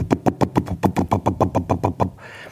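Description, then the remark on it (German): A voice imitates the engine of a stationary bus left running: a fairly loud run of about a dozen rapid, even chugging pulses that abruptly stops, leaving faint background hiss. “Und ähm, das wäre alles noch nicht so schlimm, aber das Schlimme ist dieses Geräusch von stehenden Bussen. Also der Motor läuft, aber die Busse stehen.”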